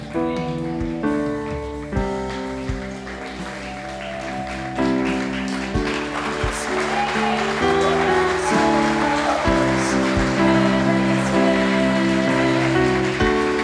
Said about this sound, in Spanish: Esos aplausos deberían ser por un entendimiento desde nuestro espíritu, no porque el de a la par aplaude.